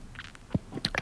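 A telephone handset clatters on a caller's line during a radio phone-in, a few short, dry knocks and rattles in quick succession, muffled and thin as if heard through the phone, with no talking.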